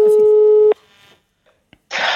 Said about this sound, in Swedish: Nu ska vi ringa upp Hannes.